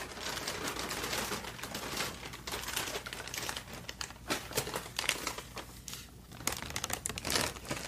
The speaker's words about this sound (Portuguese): Eu vou pegar aqui a sua sacola com cuidado para não cair nada, né?